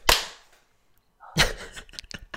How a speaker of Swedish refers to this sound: Okej, vi klappar Nej. på tre. Tre. Ett, två, tre.